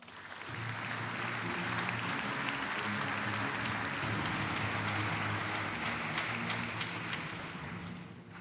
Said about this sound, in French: Je vous demande d'applaudir et d'accueillir